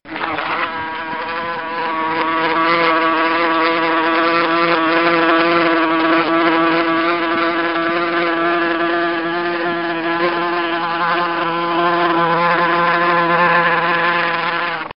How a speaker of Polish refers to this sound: Jest to niesamowite, bo to jest osa.